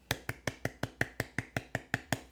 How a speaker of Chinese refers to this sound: 这个鼓掌声听起来是不是很奇怪？应该是非常奇怪的，但是我等下来看看怎么调好了。